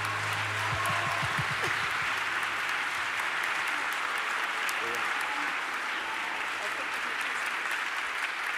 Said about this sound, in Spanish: Señor, te damos un aplauso a ti, te damos la gloria.